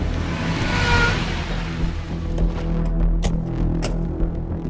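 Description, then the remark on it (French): Car engines rumble at low speed, a steady hum with a broad wash of tire and road noise and a few brief clicks, as two gendarmerie cars roll in and park in an apartment building's parking lot. “Deux voitures siglées gendarmerie sont en train de se garer.”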